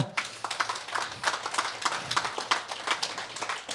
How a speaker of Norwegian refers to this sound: Det fortjener jo virkelig en ros, og det syns jeg dere skal gi en applaus for rett og slett her nå.